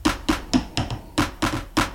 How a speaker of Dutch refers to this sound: Handklapjes.